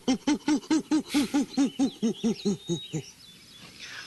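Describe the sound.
A person imitates a call heard from a tree about 50 yards away that sounded like a great ape, with a rapid series of about a dozen rhythmic, hooting 'ooh' pulses that fade into a breathy trailing sound, fairly loud, no other talking.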